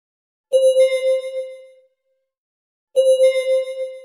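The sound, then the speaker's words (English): An elderly woman's medical monitoring equipment by her care bed at home sounds a disconnection alert twice, each a clear, bright electronic tone that rings for about a second before fading, with a short pause between repeats and no voices. “The disconnection alert of her mother's monitoring equipment was the hopeful beep she had followed.”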